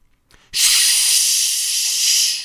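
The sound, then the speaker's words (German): A person makes a loud, steady "shhh" shushing hiss that holds for about two seconds after a faint breathy lead-in, bright and airy with no other voices. “Don't shush me.”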